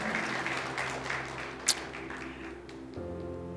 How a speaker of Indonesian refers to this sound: Amin saudara. Berikan tepuk tangan buat Tuhan kita. Amin.